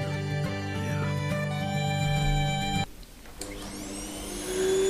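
A vacuum cleaner drones loudly and steadily, its motor whine briefly dropping and shifting pitch partway through before revving back up. No one speaks.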